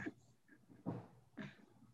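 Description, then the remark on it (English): A few muffled knocks on a door, two solid thuds about half a second apart after a softer one, with quiet room noise between them. “hold on, somebody knocking on my door, G.”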